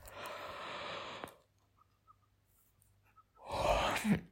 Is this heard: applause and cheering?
no